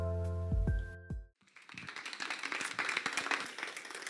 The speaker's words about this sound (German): Yes, vielen Dank. Ey, das ist immer schon schön, wenn man Applaus bekommt, bevor man irgendetwas getan hat. Das zeigt mir, dass ihr mich lieb habt, ohne dass ich irgendetwas kann.